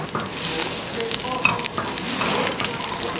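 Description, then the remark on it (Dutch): Duck fat sizzles steadily in a pan, a dense, crackling hiss with bright pops flickering through it, holding a fairly even loudness for the whole stretch, with no voices. “Ik begin nu wel echt van dat lekkere spekkige eendenvet eh, te ruiken.”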